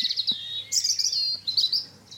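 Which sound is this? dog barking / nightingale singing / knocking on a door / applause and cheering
nightingale singing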